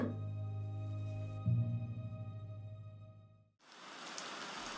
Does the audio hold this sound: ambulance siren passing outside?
no